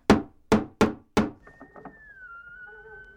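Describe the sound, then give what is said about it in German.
Four firm knocks on a wooden door in the middle of the night, in an uneven rhythm and loud, followed by a faint lingering tone and quiet background noise. “Hey du, es ist mitten in der Nacht und du wagst es noch an meine Tür zu klopfen?”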